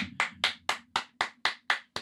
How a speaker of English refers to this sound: So I want to give all of you individuals a round of applause, honestly, because